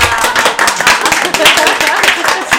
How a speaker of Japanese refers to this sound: 拍手多い拍手多いね今日ね嬉しい